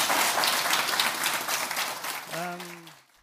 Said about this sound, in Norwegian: Um, jeg tror rett og slett vi skal gi deg en uh, varm applaus.